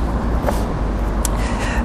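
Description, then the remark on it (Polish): An old small passenger car passes by, its steady engine rumble and road noise filling the scene for a couple of seconds, with a brief higher rattle partway through. “przejechał z tych takich ładnych, luksusowych i jedzie, to, o ten Filipowi mi się spodobał, jeszcze taki osobowy, stary samochodzik”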